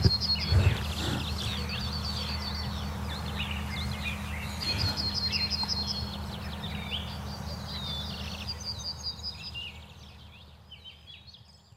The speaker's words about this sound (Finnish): Joko kiurusta tulee kohta pääsolisti? Kyllä se tällä hetkellä on nyt. Niin, se kilpailee jo kovasti laulurastaan kanssa. Kyllä, ja keltasirkku yrittää kans tuossa Joo. tulla väliin.